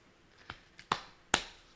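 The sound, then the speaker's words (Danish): A person pats their own back four times in an uneven rhythm: soft, muffled slaps, the later two sharper and louder, each fading quickly. Nobody speaks. “Jeg håber, man kunne høre tydeligt nok, at jeg klappede mig selv på ryggen, så det ikke bare var sådan underlig klaskende støj.”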